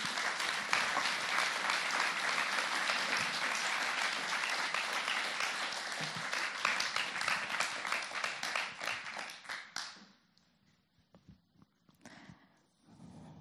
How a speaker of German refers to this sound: Er hat sich ganz oben versteckt und ich hoffe, du wirst trotzdem den Weg jetzt zu mir finden. Vielleicht hilft ein Applaus, ihn da rauszueisen.